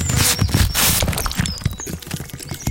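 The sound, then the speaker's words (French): Galloping horse hoofbeats pound in a fast, rolling rhythm, loud, with dense overlapping thuds and no voices. “Elles arrivent à une vitesse folle, comme des chevaux au galop.”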